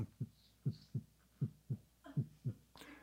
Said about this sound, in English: And you can hear her heartbeat in the background.